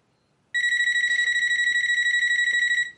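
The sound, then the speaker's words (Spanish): A telephone rings in a house with a steady, high-pitched electronic trill, a continuous buzzing ring lasting over two seconds that starts abruptly after a brief silence and then cuts off. “Coge el teléfono.”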